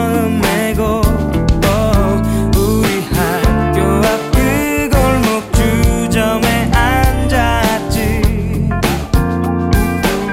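A pop ballad plays loudly and steadily, with a sustained male vocal melody carried over full instrumental backing of bass and layered harmony, with no talk over it.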